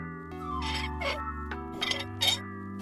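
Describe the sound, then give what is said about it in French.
A dry faucet tap in Mayotte, during a water crisis, is turned, giving a few shrill, grinding squeaks over a steady metallic hum, with no water running, fairly loud. “Vous entendez ce bruit C'est le bruit d'un robinet qu'on tourne et qui n'a pas d'eau.”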